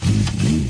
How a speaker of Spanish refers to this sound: Cuando una moto de 30 caballos va por la autopista suena así.